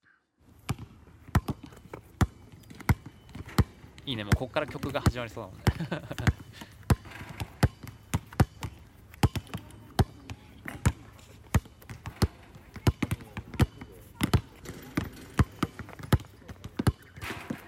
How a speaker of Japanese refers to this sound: 娘と公園へ遊びに行ってバスケットしました